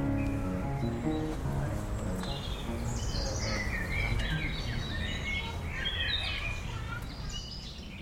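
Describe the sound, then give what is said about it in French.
Birds chirp and twitter continuously, several overlapping high calls layered over a steady low background murmur that suggests faint voices underneath. “ses souvenirs avec Jean-Claude Briseville et sous le pépiment des oiseaux”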